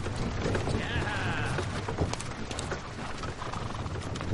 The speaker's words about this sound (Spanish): Eisenheim observa triste el paso de la carreta con el cuerpo de Sophie.